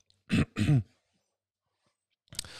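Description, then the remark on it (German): A person recording himself at midnight gives two quick, harsh coughs, followed by a brief throat clearing, then silence and a short rough burst of breath at the end. “Kleine Corona-Husti”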